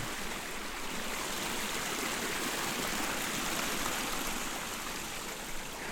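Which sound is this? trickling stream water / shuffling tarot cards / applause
trickling stream water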